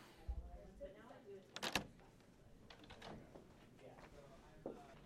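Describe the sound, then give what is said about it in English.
The first of two heavy double doors into the Yiddish Book Center's book vault opens with a low thud, then sharp metallic clunks of the latch and a scraping mechanical movement, with faint voices murmuring in the background. “Okay, so that's the, the first the first door. There are two double doors here, and uh, I'm just gonna repeat what it says on the sign.”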